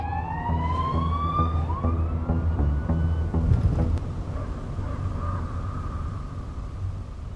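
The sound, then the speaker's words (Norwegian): Police sirens wail over a rumbling engine, several overlapping tones sweeping up and down as police cars race in pursuit of a Ford Scorpio through the forests of Østerdalen, Norway, on a warm, pitch-black August night. The sirens are loud at first, then fade into road noise. “Midt inne i skogsriket, langt oppe i dalstrøkene i Østerdalen farer en Ford Scorpio gjennom landskapet med en bråte av politibiler hakk i hæl.”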